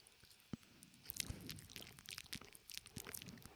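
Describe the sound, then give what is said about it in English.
Quiet chewing of gum during a live broadcast: a steady run of wet, sticky smacks and small clicks from a working mouth, fairly irregular in rhythm, with no talking. “Can you hear me chew?”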